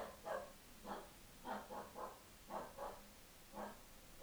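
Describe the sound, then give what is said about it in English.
A female dog lets out a string of short, faint barks and whiny yips, around eight in irregular bursts, with no one talking. “Sorry, my dog is having, having a demonic a sh- possession.”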